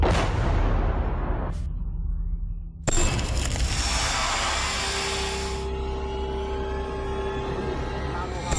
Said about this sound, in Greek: Η ώρα είναι 12 και 35 και πριν από λίγα δευτερόλεπτα ακούσαμε αεροσκάφη να πετούν πάνω από τον ουρανό ενώ είναι διακριτά ακόμα και τα πυρά των αντιεροπορικών που βλέπουμε πάνω από τον αέρα στο κέντρο του Κιέβου.